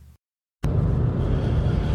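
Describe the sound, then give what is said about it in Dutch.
Steady low rumble of a car interior while driving toward a spot near Maasbracht, a dense engine-and-road drone that starts abruptly after a brief moment of silence and holds at an even level. “Eh, ik zit in de auto en ben onderweg naar een uh, dubieuze kaalpoelplek ter hoogte van Maasbracht.”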